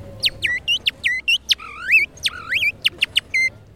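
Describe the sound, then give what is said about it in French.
A man in France whistles an imitation of birdsong: rapid, trilling phrases of sharp chirps and upward-sliding warbles, loud, with brief pauses between bursts and no talking. “Moi, je cherchais être comme un vrai oiseau.”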